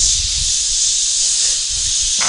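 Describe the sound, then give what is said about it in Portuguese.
A voice imitates a pressure cooker valve with a loud, steady, breathy hiss held for about two seconds without a break, on its own, with no talking. “Uma panela de pressão que é barulho da, da válvula.”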